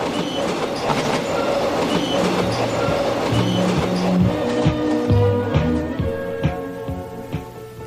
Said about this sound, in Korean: 철도의 날을 맞아서 90년대 기차 안팎의 풍경 소리 들려드렸습니다.